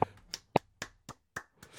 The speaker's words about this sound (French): oui, bravo, on l'applaudit.